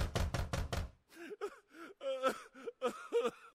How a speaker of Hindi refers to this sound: बीस घंटे बाद दूसरे दिन सुबह दरवाजे के पास मिश्रा जी जाकर उसमें अपना सिर मारकर बोलते हैं